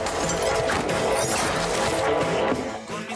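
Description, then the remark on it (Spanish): A loud, chaotic fight scene from the Prime Video series La cabeza de Joaquín Murrieta: blows and gunshots crash together in a dense, continuous burst of impacts lasting a few seconds, with no one speaking. “Inician golpes y disparos.”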